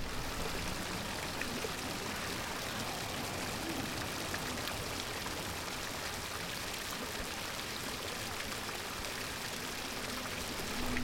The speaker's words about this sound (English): Well, you can't hear the bird, but you can hear the, the fountain.